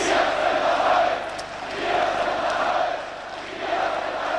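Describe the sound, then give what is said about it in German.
A large demonstration crowd in Leipzig, protesting for self-determination in the GDR, chants the slogan "Wir sind das Volk" in unison, the loud rhythmic chant rising and falling in three waves over a dense roar of many voices. “Das war äh, die Demonstration für Selbstbestimmung in der DDR, um endlich die Geschicke in die Hand zu nehmen.”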